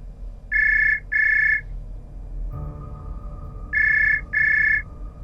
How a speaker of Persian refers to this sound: تلفن زنگ زد و پورتیا تلفن رو جواب داد با همون صدای پیغامگیرش ولی تلفن همچنان زنگ میخورد